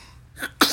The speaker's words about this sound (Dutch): gezondheid nog een keer.